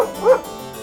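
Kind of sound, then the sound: animal, small dog barking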